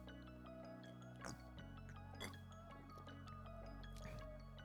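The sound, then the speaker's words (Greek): Sparkling mineral water pours and fizzes over a steady low hum, with a few brief splashy bursts as the liquid hits the glass. “Live αντίδραση. Ξινό νερό”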